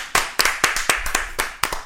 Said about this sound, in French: On peut t'applaudir quand même. Merci beaucoup d'avoir proposé une si bonne idée.